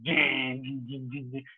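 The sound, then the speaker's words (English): A voice mimics distorted metal guitar power chords: a loud, buzzy sustained growl that then breaks into several short chugging bursts, lasting under two seconds. “So then we got to actually learn about, ah, okay, so you had to to get that metal sound, you need to put some distortion and play power chords.”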